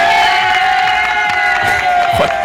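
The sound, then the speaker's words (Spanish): A loud crowd cheers and shouts in celebration, a dense continuous roar of many voices with whoops rising throughout, energetic. “parece que están celebrando que la ha pillado.”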